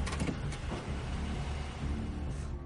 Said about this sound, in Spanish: El que está a su lado abre la puerta.